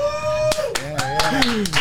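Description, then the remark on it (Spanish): A studio audience whoops and shouts in drawn-out, pitch-sliding voices while about six sharp, irregular claps punch through the noise, all fairly loud. “Tengo un clase de audiencia acá. Están gritando y todo, ¿verdad, gente?”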